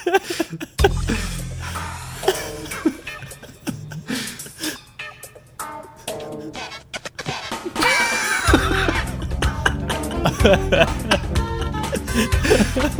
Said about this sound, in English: click play and just have a listen to how horrendous that is. okay, I'm going to click play now. it's like porn soundtrack. yeah.